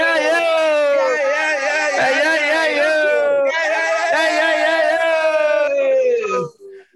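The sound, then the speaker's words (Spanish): A loud, joyful group shout of "ya" held for about six seconds, voices sustaining a long cheering yell with a brief dip midway before it cuts off abruptly. “me sumo, me sumo al grito de felicidad.”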